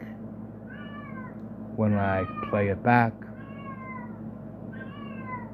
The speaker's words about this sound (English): Hey, knock it off over there! Don't talk back to me! Hmm, that's my cat, who's in heat. Again, it's her first heat. And in three weeks, it's off to the vet, and she's gonna get spayed and that'll end the caterwauling, thankfully.